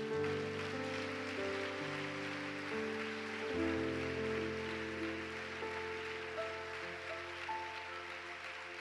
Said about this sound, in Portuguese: Vamos aplaudir bem alto o nome de Jesus.